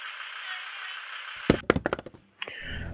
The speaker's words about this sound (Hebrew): הקשר נפל לי מהיד.